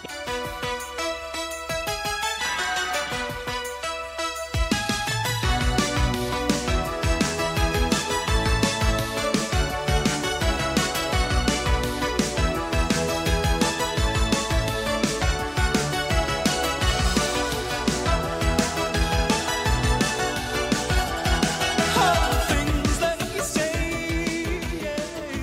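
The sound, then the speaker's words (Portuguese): An upbeat 1980s synth-pop song plays loud, opening with a brief keyboard intro before a driving drum beat and bass kick in and continue steadily, with no talking. “E eu adoro essa música e a gente vai ouvir um trechinho dela agora.”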